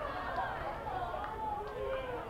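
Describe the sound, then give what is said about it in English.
A steady, dense baseball crowd murmur of many overlapping voices at moderate level, restless and grumbling in displeasure after a pitch is called a ball outside during a Blue Raiders game, with no single voice standing out, sustained throughout. “Crowd wasn't too happy about that.”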